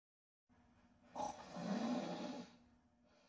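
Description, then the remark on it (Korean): One loud, rasping snore from a passenger sleeping on a quiet bus, a long throaty rumble lasting about a second, rises above a steady low background hum and then fades away. “가끔 요란한 코고는 소리가 정적을 깼다.”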